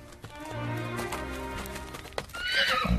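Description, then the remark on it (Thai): A horse, an ornately decorated royal horse ridden daily by the priest Ruhaka, whinnies loudly, its neigh rising and wavering, while hooves clop steadily underneath and a sharp hoof strike or snort breaks through near the end. “เมื่อมีข่าวปุโรหิตรุหกะได้ม้าต้นทรงเครื่องสวยงามมาใช้ทุกวันจึงมีผู้คนมารอชมม้านั้นตลอดเส้นทางที่ปุโรหิตใช้สัญจร”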